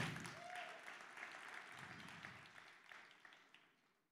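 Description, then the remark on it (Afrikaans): A church audience applauds the band in a dense, steady wash of clapping that holds for about four seconds, with a brief whistle-like tone early on before the clapping gradually thins out toward the end. “Kom ons gee 'n volle klap.”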